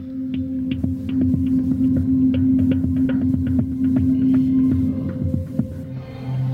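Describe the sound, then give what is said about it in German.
Electronic music generated live from the brainwave signals of a woman wearing the device: a steady low droning hum overlaid with scattered, irregular plinking blips and clicks, moderately loud, with no voices. “Das ist die musikalische Analyse ihrer Hirnströme im Moment.”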